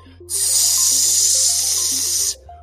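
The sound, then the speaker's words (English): A loud, steady sizzle like a burger frying on a hot grill hisses for about two seconds and then cuts off, with a simple stepping melody playing underneath. “Oh, what's something sizzling? Aha, it's a 50 burger.”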